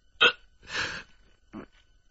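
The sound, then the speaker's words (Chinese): A man's voice imitates the burps of an imperial censor who has eaten his fill in a told story: a sharp short belch, a longer drawn-out one, then a final brief lower burp, all fairly loud with short pauses between and no other talking. “御史大人摸着撑饱的肚皮，边打着饱嗝边说”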